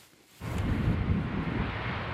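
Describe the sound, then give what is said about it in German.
A loud, steady roar of an airplane taking off from Saarbrücken Airport swells in after a brief quiet moment, rumbling low and broad, with gusty wind noise blended in and no voices, heard on the windy, wet apron. “stehen mit gekreuzten Armen da und beobachten das startende Flugzeug”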